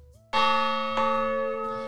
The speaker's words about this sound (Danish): Og øh, jeg synes, du trækker to gange i gongongen. Jeg trækker i gongongen.